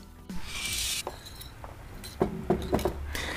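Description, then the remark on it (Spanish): Dishes and glasses clink in a sink during washing up, with a burst of running water, then several sharp ceramic and glass knocks in quick succession. “terminé con los platos. ¿Dónde iba la cacerola grande?”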